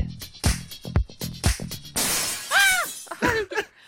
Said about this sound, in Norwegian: De må slutte å putte glasskår i jinglene, de som lager eh, kjenningsmelodier. Jeg Jeg skriker hver gang sånn glass eh, knuser.